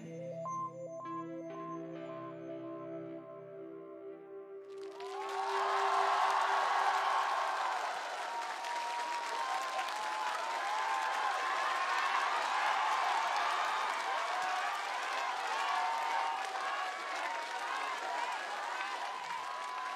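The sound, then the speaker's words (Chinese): A sustained note fades out, then a large audience breaks into loud, dense applause for the band's guitarist, with cheering and whistles that holds steady for about fifteen seconds. “谢谢，呃，也希望大家把掌声给我们的吉他手”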